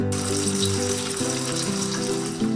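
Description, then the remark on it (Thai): Steady crackling sizzle of food frying in a pan, fairly loud, continuous throughout with a faint low hum underneath and no voices. “ไม่ว่าจะเป็นเรื่องของการทำความสะอาดบ้าน ดูแลไก่ที่เลี้ยงทำอาหาร”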